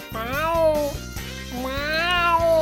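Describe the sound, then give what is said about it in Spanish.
At almost midnight, a cat caught in a trap cage at the door of a house meows twice in long, drawn-out, wailing cries, loud, with a steady low hum running underneath. “Ah, y que había caído un, gato.”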